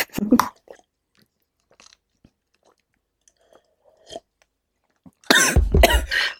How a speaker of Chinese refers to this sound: 我呛的，我呛着了。